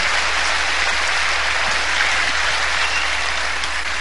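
Loud, sustained applause from an audience for a couple called forward, a dense, steady wash of many hands clapping at once with no pauses and no voices standing out.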